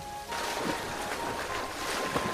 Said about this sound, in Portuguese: o som da cachoeira e da corrente de água invadem o cenário em volta de Mikan